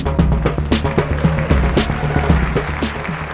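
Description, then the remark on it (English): Steady crowd applause at a Quillette supporters' event blends into a loud, driving music track with a thumping, regular beat and deep bass notes, continuing without pause for a few seconds. “Guys, keep clapping for Claire.”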